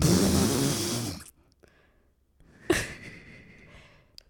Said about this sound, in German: Okay, jetzt atmen wir alle tief ein und aus.